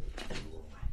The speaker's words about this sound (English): Um, hi, honey. Um, I'm doing a podcast. Um, no, I don't want to play. Thank you, though. That's my dog trying to get my attention because I'm not paying attention to her. I love you, but I'm recording.